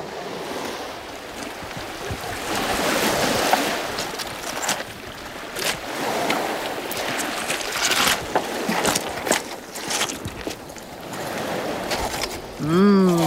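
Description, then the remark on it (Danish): Sea waves wash steadily onto a clay shore strewn with lumps of blue clay, the sea stained brown by washed-out clay, in a continuous, rushing surge that swells and eases, with some wind noise; a voice briefly starts at the very end. “Noget af det rager helt ud i havet, og man kan se, at havet er farvet, er farvet brunt af leret, som er skyllet ud i havet.”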